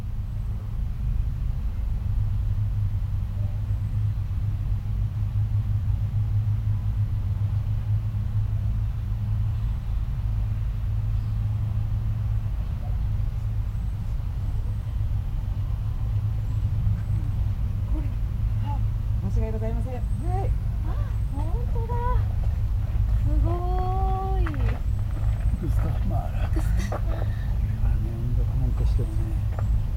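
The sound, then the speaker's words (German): Outdoor ambience at Gustav Mahler's grave in a Vienna cemetery: a steady low rumble of traffic throughout, with faint voices of three Japanese speakers and bird chirps emerging in the last ten seconds. “Im Warnfriedpark gehen wir äh, nach Wien zu Gustav Mahler am Grab.”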